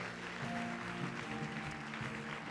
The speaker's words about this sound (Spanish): Dale otro fuerte aplauso a Dios. Amén.